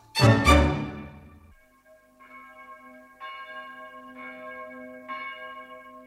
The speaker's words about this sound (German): Die Stunde, wo von den Türmen Glocken fallen und über die Dächer gehen. Aber wer hört um diese Zeit schon Glocken?